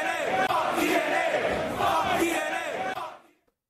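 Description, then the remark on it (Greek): A crowd of voices shouting and yelling together to be allowed to play, in a loud, continuous roar for about three seconds, with overlapping high-pitched cries, before it cuts off into silence. “Και να ησυχάσω και αυτού εδώ πέρα που φωνάζουν να παίξουν”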